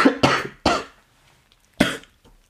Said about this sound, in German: Oh, Entschuldigung. Ich lasse die Huste auch drin.